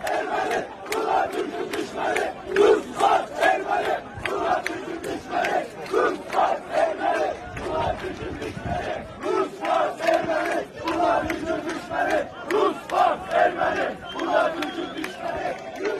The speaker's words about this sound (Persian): بذارید براتون شعاری که امروز جوانان آذری باکو در تجمع اعتراضی سر میدن رو پخش کنم.